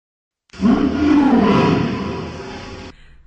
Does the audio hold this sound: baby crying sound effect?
no